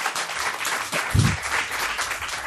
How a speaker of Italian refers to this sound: viviamo nel 2014 e nel momento in cui magari dici una cosa di questa ti fanno l'applauso